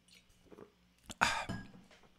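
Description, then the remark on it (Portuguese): A quiet sip of water: soft mouth and liquid noises, then a brief wet slurp and swallow near the middle, with no talking. “É só um golinho de água e a gente volta para valer.”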